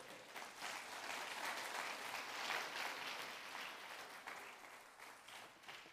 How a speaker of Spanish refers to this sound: Dele palma fuerte al Rey.